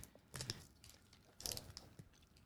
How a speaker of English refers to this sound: please do not chew in your microphone. Thank you. sounds terrible. No, I was about to come up and try to talk. I know, but it sounded horrible.